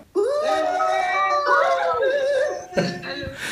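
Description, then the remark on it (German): A sound effect of a crowd cheering and whooping: a loud, sustained, dense burst with high shouts and screams layered together, then a brief dip and a second rush of noisy applause-like cheering near the end. “Also ähm, ja, so kann man mit Soundeffekten von Leuten, die gar nicht da sind, ähm, kann man hier Eindruck schinden.”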